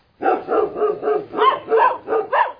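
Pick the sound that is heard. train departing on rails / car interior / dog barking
dog barking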